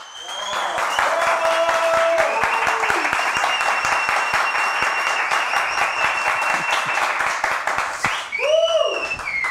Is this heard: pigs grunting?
no